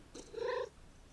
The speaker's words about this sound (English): you guys hear the cat? You guys hear him? Look at him! Look at him, he just made a little noise! He just made a little noise.